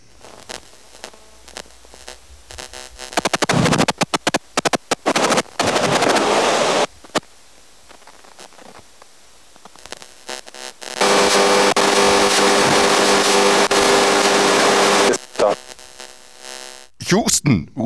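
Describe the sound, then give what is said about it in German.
Harsh bursts of radio static and stuttering electronic interference, like a mobile phone buzzing into a speaker, with choppy pulses, a long steady crackling stretch, and brief quiet gaps in between. “Ja, da war wirklich alles dran an Störgeräuschen, Handygeräusche, Probleme mit dem Funkempfang.”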